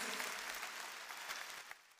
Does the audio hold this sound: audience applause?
yes